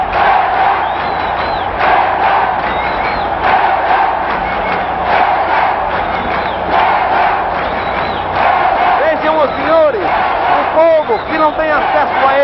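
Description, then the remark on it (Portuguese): A huge stadium crowd at the Maracanã roars continuously, thousands of voices shouting and chanting a player's name together and cheering, with individual cries rising sharply above the din toward the end. “O povo então só tem um meio de comunicar-se com ele, gritando pelo seu nome, ovacionando.”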